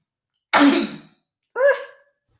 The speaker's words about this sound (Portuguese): Ai, vou espirrar, desculpem. Ah!